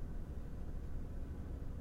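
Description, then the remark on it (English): A small Japanese mini truck's engine rumbles steadily at a low pitch as it is moved in a driveway, a continuous, even drone with no pauses, somewhat subdued, with no voices. “I'm just sitting in the driveway waiting for them to move the mini truck. We drive these Japanese mini trucks Daihatsus, Mitsubishis,”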